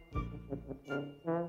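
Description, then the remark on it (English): A voice imitates a car horn with three loud, nasal honks in a row, each a brief buzzy blast with short gaps between, the last one slightly higher and sustained. “I can make a noise like a car, said the dinosaur. Honk, honk, honk.”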